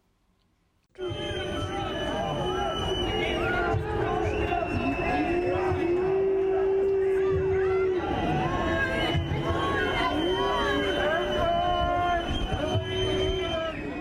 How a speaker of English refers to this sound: When a member of the CDU and the FDP enter the stage, the audience is showing their displeasure by booing and shouting during their speech.